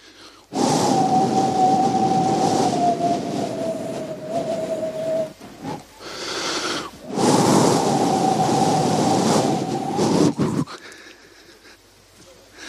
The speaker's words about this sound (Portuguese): Eles ouviram o barulho do vento. Sabe quando você deixa a janela entreaberta? aquele barulho assim, aquele assovio.